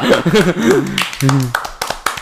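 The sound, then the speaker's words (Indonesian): A voice sounds wavering tones, then a short run of sharp, loud hand claps, called for as a clap of seven, follows in an uneven rhythm, the last few coming quickly one after another. “Tepuk tangan tujuh saja.”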